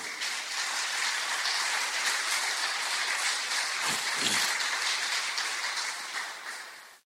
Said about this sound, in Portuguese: Aplausos para Jesus.